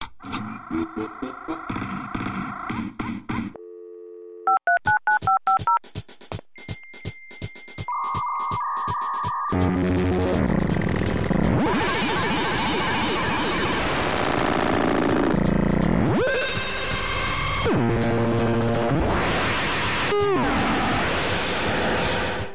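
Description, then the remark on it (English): A computer's dial-up modem dials with a quick run of beeping tones, then whistles and pings before breaking into loud, grinding screeches and hissing static as it connects to go online. No one speaks. “start the computer and the modem to hear the show that I'll be downloading.”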